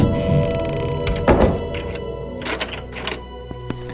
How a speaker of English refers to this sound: Quickly, shut the door.